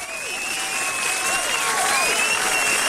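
A crowd claps steadily in sustained, dense applause, close and fairly loud throughout, with faint cheering and whistle-like tones above it.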